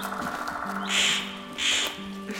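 Two harsh, raspy caws from a bird ring out in quick succession, fairly loud, over a steady low background hum, in a forest after rain.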